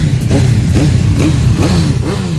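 Motorcycle engines of bikers gathered in Valladolid for the Pingüinos rally rev loudly and continuously, with repeated rising throttle bursts about twice a second over a heavy low rumble, with no one speaking.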